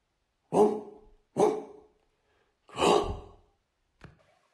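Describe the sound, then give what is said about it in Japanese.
A human voice imitates a dog barking: three loud, gruff barks at a steady pace, then a short, faint yelp, with silence between them, voicing two dogs like white bears that break through a door into a room in a narrated story. “という声がして、あの白熊のような犬が2匹、戸を突き破って部屋の中に飛び込んできました。”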